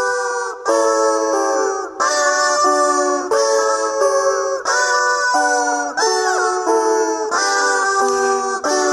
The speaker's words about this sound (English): If you're just joining us, you're listening to Pachelbel's Canon on a rubber chicken.